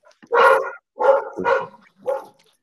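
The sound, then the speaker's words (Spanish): A dog barks four times in an uneven rhythm, loud, with short gaps between the barks and no talking, in a house. “seguramente los ladridos salgan en triple eh, por tres vías.”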